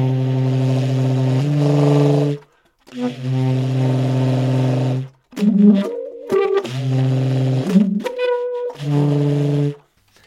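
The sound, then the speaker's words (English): A horn played while the player sings into it, giving buzzy, rough multiphonic tones. Long sustained low notes come in several phrases with short pauses, and a busier, shifting cluster of pitches sits in the middle; the sung notes form small whole-step clusters, moving between different octaves. “so in the piece i'll kind of bounce around between those different octaves and different clusters and then I'm also singing into the horn. So throughout the, the piece, you'll, you'll hear me singing whole, these little whole step clusters.”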